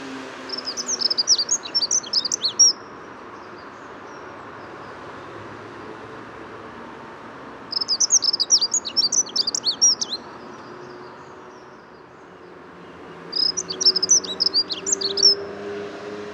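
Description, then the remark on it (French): A dunnock sings three short, rapid, high-pitched warbling phrases, each about two seconds long and spaced several seconds apart, at the edge of the Bois de Vincennes with many cars around and a road nearby, over a steady low rumble of background noise. “Alors l'accenture bouchée est très citadin.”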